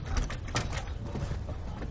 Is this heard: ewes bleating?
no